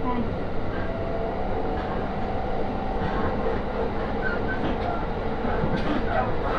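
A train on the Aoimori Railway, running from Aomori toward Noheji, rolls along steadily with a continuous low rumble and rattling wheel noise, occasional faint clacks and higher squeaks rising briefly over the dense, even hum of the carriage.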